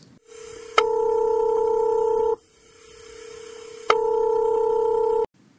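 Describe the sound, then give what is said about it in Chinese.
A telephone line tone for a listener's incoming call to a radio song-request program: two long, steady electronic ring tones, each about a second and a half, separated by a pause where a fainter hum continues. No voices. “下面我们来接听一位热心听众的电话。”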